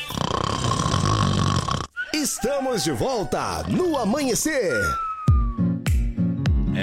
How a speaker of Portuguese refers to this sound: É, e o ronco continua, viu?